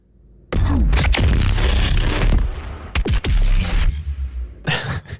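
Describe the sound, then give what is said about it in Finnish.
A big sci-fi gun, the BFG in a video game, fires with a loud, roaring blast, followed by a sweeping whoosh and a heavy crashing impact as the projectile hits something, then a few trailing bursts of debris-like crackle. “Kyllä, se, kato, se ammus tulee sieltä, kun se osuu johonkin se ammus.”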